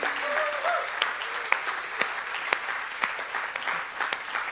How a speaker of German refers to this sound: Wer, oder lass uns mal kurz einen, einen, Applaus geben, das hören die auf der anderen Seite.